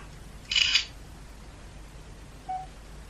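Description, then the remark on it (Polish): A crisp electronic camera shutter sound from a phone taking a photo of a jar after the 1 key is pressed, one short burst, followed about two seconds later by a brief soft beep, otherwise quiet. “I naciskam jedynkę, by zrobić zdjęcie. Wykonywanie zdjęcia.”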